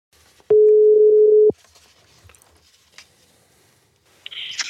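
A single steady telephone ringing tone sounds for about a second while a call is being placed, loud and clear, then the line falls quiet with faint clicks before a short hiss of noise at the end.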